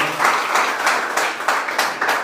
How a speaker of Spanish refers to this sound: Denle un aplauso al Señor, por favor, esta mañana. Denle fuertes aplausos al Señor, por favor, esta mañana.